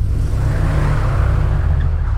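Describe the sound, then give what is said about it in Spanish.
A car engine rumbles loudly and steadily, a deep, continuous motor drone as the vehicle pulls away, with no voices. “Arrebató al niño de los brazos de su abuela, se subió al auto y se fue.”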